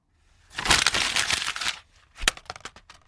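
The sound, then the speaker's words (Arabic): A sheet of paper bearing the name Song Mok-kyung crackles as it is crumpled to be thrown in the trash, a dense, noisy burst lasting over a second, then a brief pause and a few sharper, separate crinkles and snaps as the crushing finishes. No voices. “شعرت أنه من حقي تماما أن ألقي بالورقة المكتوب عليها اسم سونغ موك كيونغ هذا في القمامة.”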